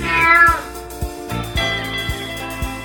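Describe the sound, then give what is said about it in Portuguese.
A cat gives one drawn-out, falling meow right at the start, loud, while a steady thumping music beat continues underneath and carries on after the cry fades. “ou seja, elas acabaram de me botar na mente que eu tenho uma gata em casa que está a todo momento desejando o coito comigo.”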